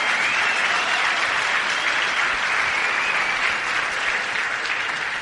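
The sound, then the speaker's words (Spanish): Sustained applause from a crowd, a steady dense clatter of many hands clapping at a fairly loud, even level for several seconds, with no one speaking over it. “¿Tú te imaginas o sea, el compromiso que tiene esta, esta compañía con el cuidado ambiental, que todos sus desechos van a un lago y en ese lago hay vida, eso se merece un fuerte aplauso, señores.”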